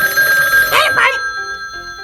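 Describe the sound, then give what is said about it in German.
An old telephone bell rings steadily and loudly at a headquarters in the afternoon, its bright metallic tone sustained throughout, with a short voice-like squawk cutting in briefly midway. “Am nächsten Nachmittag klingelte in der Zentrale das Telefon.”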